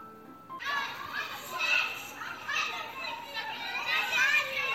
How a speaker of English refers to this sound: The nursery is very noisy. Lulu is very quiet. 幼儿园里面。小朋友玩的非常的大声，而露露呢则是很安静。